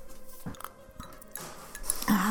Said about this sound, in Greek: Αχ. Τώρα που με έφερες νερό και ήπια, μπορώ να τα πω καλύτερα.